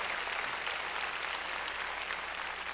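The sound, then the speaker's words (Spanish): A crowd claps steadily and densely, many hands overlapping into a continuous wash of applause at an even level, with no talking over it. The audience is clapping loudly for the Lord after a sermon about the altar. “De hoy sí, démosle palmas fuertes al Señor.”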